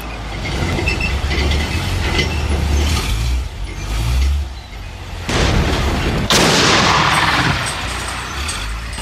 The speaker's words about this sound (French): Mais quelques instants plus tard, les bérets verts sont surpris par le vrombissement d'un char. C'est Philippe Kiefer qui a trouvé le moyen de dérouter un blindé. Debout, il guide les tirs.